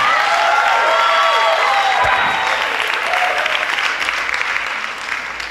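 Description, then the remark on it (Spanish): An audience gathered in the morning bursts into loud, sustained applause mixed with joyful shouts and cheering voices, a dense wash of clapping that holds steady for several seconds before easing slightly at the end. “Alguien grite con júbilo.”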